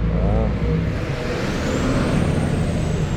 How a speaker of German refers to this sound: jetzt kommt wieder ein Schienenersatzverkehrbus. Ich habe echt keine Ahnung, wie laut die sind, deswegen ja, stoppe ja.